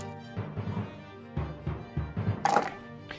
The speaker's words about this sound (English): Um, I don't like the amount of dice I heard.